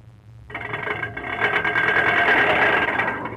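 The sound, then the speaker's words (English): A rattling car engine sputters and chugs as the car is brought in for a demonstration, cutting in suddenly and growing steadily louder as it approaches, with no voices over it. “Bring the car in.”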